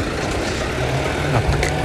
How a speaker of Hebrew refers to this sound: הכביש פה שאני צועד לצידו פקוק מלא במכוניות, פקקים של יום ראשון, איזה באסה, סורי גייז.